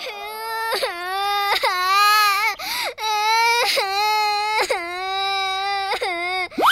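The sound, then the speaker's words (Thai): A child cries loudly and continuously in repeated wailing bursts, each rising and falling in pitch with sharp gasping breaks between them, with no other voices. “อ้าว ได้ลูกโป่งคืนแล้ว ทำไมถึงยังร้องไห้อีกล่ะ”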